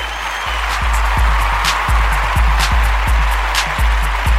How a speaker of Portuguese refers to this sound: Vamos, vamos bater palmas para o garoto.